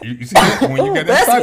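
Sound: sneeze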